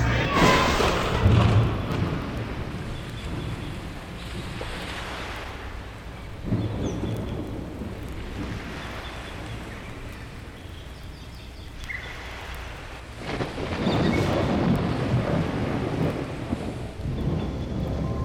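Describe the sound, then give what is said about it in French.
Steady heavy rain hisses throughout while deep thunder rolls in several times, swelling into long, loud rumbles that fade back into the downpour. No one speaks. “Et puis, et puis après, il y aura plein d'orages.”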